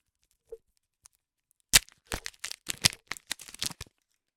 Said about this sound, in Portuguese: Hum, olha, descobri aqui um, um chocolatinho ao meu lado. Vou comê-lo aqui em direto. Mas é dark. É dark 50%. A ASMR a abrir.